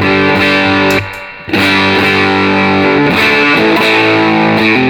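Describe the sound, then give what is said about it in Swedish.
An electric guitar played through only the Dreamen pedal on its clean boost setting with no gain at all: loud, ringing chords strummed repeatedly, cut off briefly by a short silence, then restruck and left to sustain. No voices. “Men ställ, ställ, ja just det, ta, den på clean-booten som vi hade precis, från början, ja. med ingen gain alls.”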